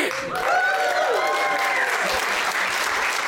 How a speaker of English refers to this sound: And that right there is the most applause Howard the Duck has ever got.